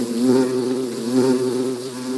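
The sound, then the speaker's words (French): Loud, continuous buzzing of a cloud of wasps heading toward a cattle herd passing near a river, a steady droning hum that swells slightly and holds without pause for the whole stretch, with no voices. “Vers le quinzième jour, pendant que son troupeau passait près d'une rivière, il entendit soudain un bourdonnement si violent qu'il en eut la chair de poule.”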